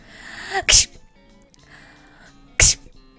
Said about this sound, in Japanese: 風邪にはいろいろな症状がありますよね。例えば、咳やくしゃみです。咳はこれです。くしゃみはこれです。